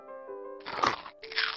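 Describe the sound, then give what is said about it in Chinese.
Two people take big crunchy bites of juicy cactus in the desert, loud crackling bursts of chewing over a faint sustained tonal background hum, with no talking. “两个人大口大口的吃着仙人掌，就像在吃西瓜一样甜蜜。”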